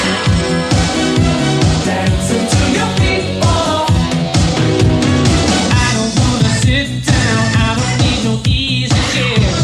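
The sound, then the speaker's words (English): An energetic 1980s-style pop-rock song from a movie soundtrack plays loud, with a steady pounding drum beat, driving bass line and layered guitars and synths filling out the mix. “Tell me who wrote these songs, these these gems.”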